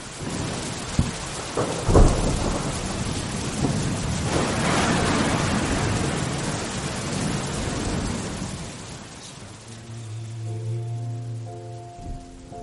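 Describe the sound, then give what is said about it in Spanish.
Steady rain hisses throughout while thunder cracks sharply and rolls in deep rumbles early on; the storm gradually eases, and soft sustained musical tones emerge near the end. “Porque al menos ahora tú y yo tenemos esta tormenta.”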